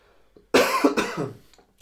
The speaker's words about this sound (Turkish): Özür dilerim. Çok öksürüyorum falan. Sen hastasın değil mi abi?